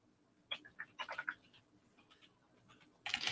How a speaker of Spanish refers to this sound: Creo que estoy escuchando mi teclado metálico, eh, digo metálico mecánico Lenovo, ¿eh? funcionando todo tren. Aquí contestando los comentarios.